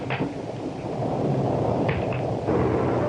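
A deep, rolling rumble of thunder fills the whole stretch, loud and steady, with a few brief crackling flickers riding on top of the low roar and no voices.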